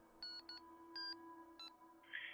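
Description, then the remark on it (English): Four short electronic beeps from a phone line as a call drops, unevenly spaced over a low steady hum, fairly quiet, with no one talking. “Uh, call must have dropped.”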